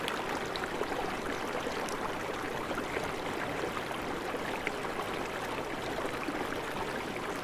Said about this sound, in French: Et en la suivant, il vous faut presque grimper parmi les rochers. Ceci, dans le lit du fleuve, comme de petites cascades.